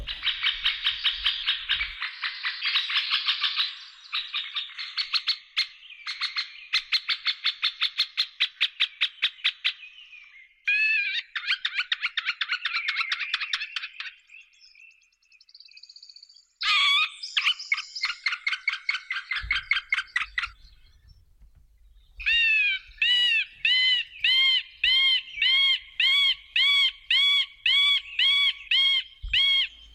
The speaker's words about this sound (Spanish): Como ¿eh? insiste, ¿eh? Un canto muy insistente. Que nos recuerda al glayo, nos recuerda al arrendajo, nos recuerda a algún córbido. ¿eh? es un sonido que se parece un poquito, pero si nos fijamos es mucho más agudo y mucho más insistente.